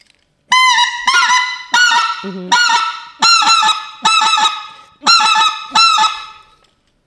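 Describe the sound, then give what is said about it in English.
A single-reed goose call being blown, giving eight loud, nasal honks in a steady, evenly spaced series with short pauses between, one brief murmured voice slipping in between honks. “so I need to learn how yeah. to blow these damn things. But I, this is a single reed, I think.”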